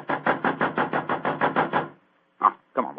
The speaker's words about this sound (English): Three quarters of an hour before the curtain time. Oh, it must be in his dressing room. I'll knock again.